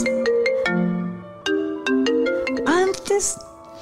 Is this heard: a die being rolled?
no